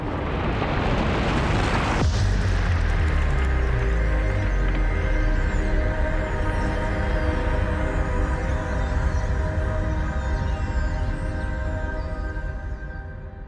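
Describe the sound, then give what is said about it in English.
A loud, deep rumble of an imagined quake on the planet Mercury, heard through the rocks of the ground, rises sharply after a brief noisy onset, then roars steadily for over ten seconds with low droning tones, alone, fading only slightly at the end. “Scientists have found evidence that the planet is seismically active so if you put your ear against the ground, you might catch the sound of something strange a mercury quake.”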